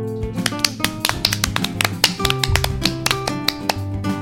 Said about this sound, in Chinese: 鸡小妹和小猴子用力鼓掌，他们都被说服了。